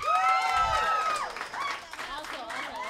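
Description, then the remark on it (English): An audience claps and cheers together in answer to a question about laughing at Chris Hemsworth, a steady wash of applause mixed with high excited voices and whoops that stays loud throughout the few seconds. “If you think it, I was only laughing at him because he's hot. Clap.”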